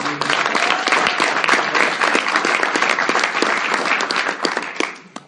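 Steady, dense applause from an audience, many hands clapping together at a fairly loud level for several seconds before it fades out quickly at the end.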